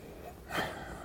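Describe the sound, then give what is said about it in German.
A single short, breathy sniff as someone inhales the aroma of a Spätburgunder Rosé wine from a glass; quiet, with no talking. “Wir riechen kurz rein.”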